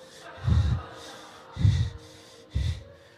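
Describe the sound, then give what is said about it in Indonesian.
Three heavy, labored breaths, each a loud, rough huff about a second apart, as someone struggles for air after eating a large amount of yakiniku meat; no talking in between. “Waktu saya makan saudara dat, apa yakiniku ya, daging saudara, nggak tahu berapa kilo masuk ke perut ya kan. Napas susah”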